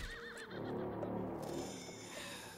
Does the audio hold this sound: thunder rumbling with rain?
no